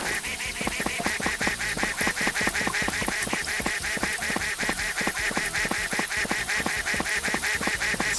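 A rapid, steady stream of high-pitched, nasal duck quacks from a video-game duck that quacks at high pitch when not covered by an umbrella, repeating almost continuously at an even rhythm, loud, with a synthetic quality and no talking.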